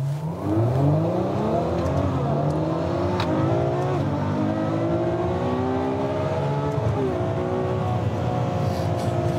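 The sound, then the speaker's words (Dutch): A Ferrari 812 Superfast accelerates hard at about 90% throttle on a cold day, its loud roar climbing in pitch through several gear changes with brief dips between shifts, steady and continuous for the whole stretch with no voices. “Die Ferrari 812 Superfast.”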